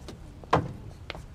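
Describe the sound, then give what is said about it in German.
An unlocked door is opened: a sharp latch clack followed by a softer click a moment later, fairly quiet against a faint hush, with no one speaking. “Moment mal, die Tür ist nicht abgeschlossen.”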